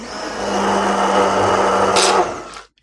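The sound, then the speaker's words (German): An immersion blender mixing a sauce whirs steadily for about two and a half seconds, a loud continuous motor hum with a slight churning texture, then cuts off abruptly. No one speaks. “Den Pürierstab reinsetzen.”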